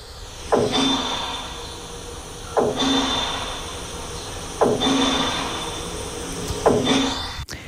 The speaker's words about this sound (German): Das ist der Lärm, den wir seit drei Wochen hören. Der ist vor unserem Haus. Das heißt, das, was wir jetzt gehört haben, ist im Haus hinein. Wir hören das, weil rund um uns herum wird gebaut wie verrückt.